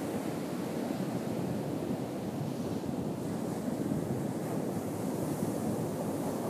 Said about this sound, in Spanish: Continúa escuchando el océano de fondo.